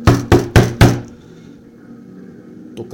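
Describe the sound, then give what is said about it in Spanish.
Four loud, sharp knocks on a window in quick, even succession, followed by a quiet lingering room tone and a faint brief sound at the end. “No les miento, de repente escuché como la ventana”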